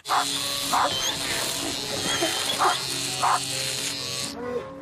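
A steady electric clipper buzz runs throughout as dogs (a Labrador, a St. Bernard and a small dog) are shaved, while a dog barks in short bursts, about five sharp barks spaced irregularly, loud over the constant hum.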